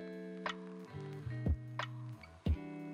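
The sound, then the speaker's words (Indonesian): A battery-powered wall clock ticks steadily about once per second as its hands move, each tick a short, sharp click, heard over a soft sustained musical tone in the background. “Suara paling keras mungkin datang dari bunyi jarumnya yang bergerak. Cet, cet, cet.”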